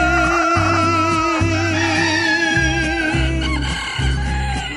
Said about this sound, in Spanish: A ver si con el gallo se despierta. Kikirikiki.